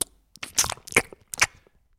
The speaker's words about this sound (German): Dann machst du ein paar Mal dieses Schmatzen raus. Also ich mache jetzt nur für die, also Jungs und Mädels, das Schmatzen, also das ist einfach nur zum Testen.